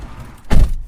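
A single heavy, muffled thud of the passenger door of an electric car shutting as a person gets in, a short low-pitched slam after a moment of quiet rumble, with no voices.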